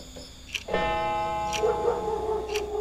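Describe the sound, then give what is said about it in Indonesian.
A wall clock ticks slowly and steadily at midnight, about once a second, with crisp ticks over a sustained ringing hum that swells in partway through. “Dan tiba-tiba jam dinding berdetak 12 kali.”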